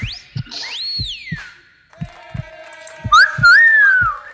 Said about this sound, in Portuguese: Boa tarde! Agora eu devolvi o assobio, viu,